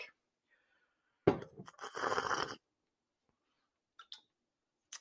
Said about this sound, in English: Everybody raise your glass. Give yourselves a little clinky clink.